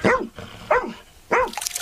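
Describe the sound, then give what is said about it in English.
A rescue dog named Joy, trained in Ukraine to search the wreckage of Russian strikes for survivors, barks three times at a steady pace, each bark sharp and harmonic with a slight falling tone, loud against a light background hiss. “That includes the team that trains this rescue dog, mm.”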